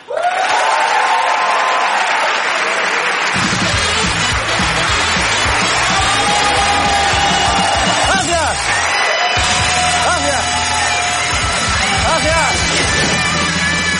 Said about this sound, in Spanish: Gracias, gracias, gracias por ese aplauso. Me ha gustado, qué energía.